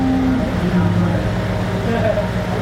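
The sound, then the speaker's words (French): Electric fans run with a steady, even drone and a low hum that never lets up, with faint muffled voices beneath the whirring. “Bon, on s'excuse pour le bruit, euh, les ventilateurs et la musique intempestive.”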